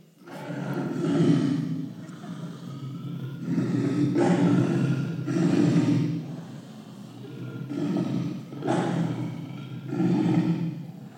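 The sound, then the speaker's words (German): A lion roars repeatedly in long, deep, rumbling bursts, each swelling and fading with short pauses between, loud with no talking. “Ah, ein ganz schön langes Brüllen.”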